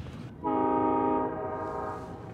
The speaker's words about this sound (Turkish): Bir de böyle tren geçiyor işte onlar da malzeme taşıyor. Woo, woo.